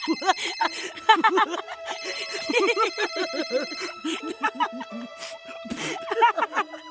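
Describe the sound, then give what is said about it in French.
A mobile phone ringtone plays steady electronic tones for several seconds, nearly drowned out by bursts of overlapping giggling and laughter. “Dès que le souverain a cessé de sonner”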